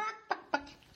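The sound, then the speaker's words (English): A person's voice imitates a happy chicken, starting with a drawn-out cluck followed by two short, sharp clucks in quick succession, fairly loud. “That's a happy chicken.”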